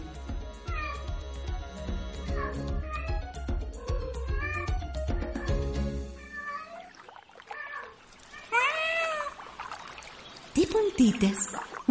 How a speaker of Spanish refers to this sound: una gata muy estirada y parlanchina se acerca en su camino.